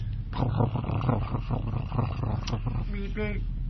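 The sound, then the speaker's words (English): A voice imitates a Model T car engine rumbling, a growly sputtering with rough pulses, ending in a few rising voiced tones. “Do I hear the Model T outside? Model T is rumbling, isn't it”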